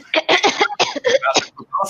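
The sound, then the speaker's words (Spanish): A loud fit of coughing, several harsh bursts in quick succession, ending with a short throat-clearing sound. “y básico, se puede hacer como una tos de que estás volviendo para la normalidad.”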